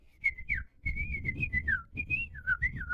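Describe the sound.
A person whistles a quick, warbling run of short chirps imitating a finch, fairly loud, the notes sliding up and down over about three seconds with breathy noise underneath.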